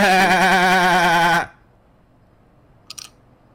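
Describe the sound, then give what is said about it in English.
A person gives a loud, wavering imitation of a sheep's bleat as the punchline of an 'interrupting sheep' knock-knock joke, a single sustained "baa" lasting over a second, then near silence with a faint brief rustle. “Interrupting sheep.”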